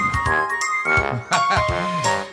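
A Bixi bike-share bicycle's bell rings several times in quick succession in the streets of a Canadian city, bright metallic tones overlapping and lingering between strikes, with no voices.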